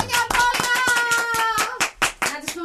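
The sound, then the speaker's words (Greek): Several hands clap in a quick, steady rhythm, fairly loud, during a birthday celebration on a show, while a sustained voice sounds over the applause throughout. “Χειροκρότα, βρε.”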